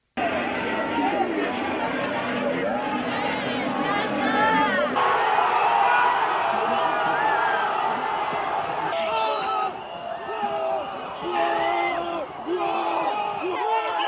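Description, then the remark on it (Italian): A large crowd of Ivory Coast football fans celebrates the national team's Africa Cup of Nations victory over Ghana, won 9-8 on penalties, loudly and continuously, a dense roar of shouting, whooping and overlapping voices that stays energetic throughout. “Quelli che stiamo sentendo sono i festeggiamenti per la vittoria della Costa d'Avorio nella Coppa d'Africa di calcio.”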